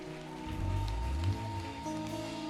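An audience breaks into dense, steady applause mixed with cheering, given as an acclamation to the Holy Spirit, a continuous crackling wash of clapping over sustained low keyboard chords, swelling slightly midway before holding level.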